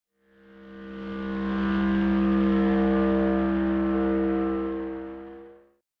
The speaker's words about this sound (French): Enfin, je resserre la stéréo et j'applique aussi à ce son un filtre passe-bas.